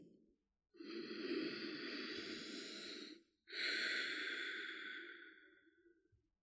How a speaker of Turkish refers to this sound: Önce derin bir nefes alıp vererek akciğerlerinizi temizleyin.